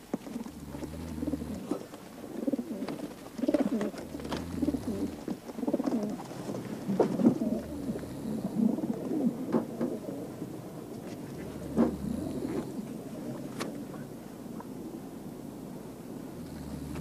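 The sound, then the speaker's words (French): Many pigeons coo together at a pigeon loft in overlapping low, throaty calls, a steady murmuring chorus, with occasional soft flutters and a low rumbling background. “Parce que les volants, ils, ils volent moins haut et ils rentrent au pigeonnier.”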